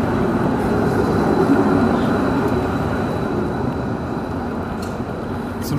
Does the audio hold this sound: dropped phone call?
no